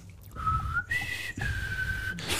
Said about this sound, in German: Das ist ganz unheimliche äh, Ding, eine ganz unheimliche Stimmung und dann ganz am Schluss wird noch pfiffen. Und ich, das geht mir immer durch Mark und Bein.